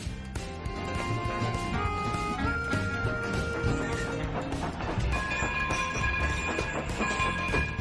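A train rolls along the railroad with a steady, heavy rumble, overlaid by high, sustained metallic squealing tones that shift pitch now and then. It stays loud throughout, with no voices.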